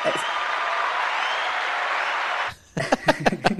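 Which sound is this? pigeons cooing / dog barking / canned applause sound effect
canned applause sound effect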